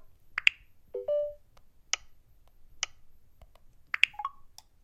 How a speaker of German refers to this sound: Ich mache einen Doppeltipp und dann müsste es eigentlich klacken. Habt ihr es gehört? Ich gehe nochmal zurück und öffne das nochmal. Klack. Nochmal.